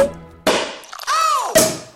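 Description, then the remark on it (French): Champagne bottle corks popping, with the isolated cork pops multiplied in a sound montage: two loud, hollow pops about a second apart, with a few faint clicks between them and a whistling tone that swoops up and back down before the second pop. “Allez, petit plaisir pour terminer, on isole tous les bouchons, on les multiplie et voici une multitude de bouteilles de champagne qui font pop pop pop pop, jusqu'à créer des bulles.”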